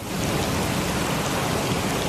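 Heavy rain pours down in a dense, steady hiss, loud and unbroken across the whole moment, with a deep rumbling low end beneath the downpour and no voices; huge volumes of water are falling, with flooding everywhere.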